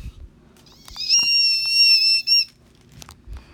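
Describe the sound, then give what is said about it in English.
A voice imitates a scream with a shrill, very high-pitched squeal, held steady for over a second and fairly loud, then cut off by a short burst, with no talking. “There were lots of different screams. Yeah, a lot of screams.”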